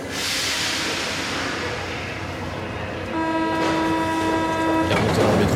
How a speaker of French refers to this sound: Elle est remontée dans le métro, elle est remontée dans le métro, toujours direction la Courneuve.